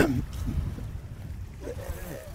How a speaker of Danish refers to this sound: Ved du hvad, vi kæmper os ud i vinden her. Det larmer en del af mikrofonerne, men det må, ja. vi, lige, øh, det må vi lige overleve med.